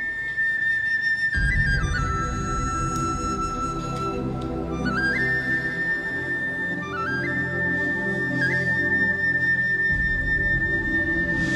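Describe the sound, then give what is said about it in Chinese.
A wuxia-style intro to the theme song of the TV series The Legend of the Condor Heroes (射雕英雄传): a clear, sustained high flute-like melody stepping between long held notes over a full, steady orchestral backing, with no voices. “这个前奏的配乐很武侠”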